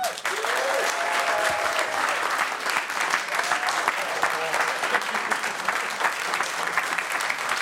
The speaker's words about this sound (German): Ich freue mich sehr, dass er da ist. Einen großen Applaus für Marcel Mann!